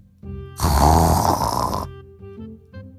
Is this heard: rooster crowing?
no